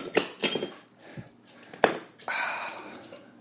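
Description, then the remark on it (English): A few sharp metallic clinks of a Suunto bottle opener against the cap of a Shiner Bock beer bottle, then a soft sustained hiss as the cap pops off, fairly quiet with no talking. “Okay, this is the last of my Shiner Bock. Might not have a beer for a while. Here's the Suunto bottle opener.”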